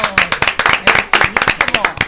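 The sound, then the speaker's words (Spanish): A short burst of applause: several pairs of hands clapping quickly and unevenly, fairly loud, in a dense, steady patter lasting about two seconds, applauding Marilil Paulino's medal at the Chile 2023 Pan American Games. “un aplauso por lo menos.”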